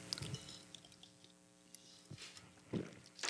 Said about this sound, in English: let me take another sip of this delicious beer.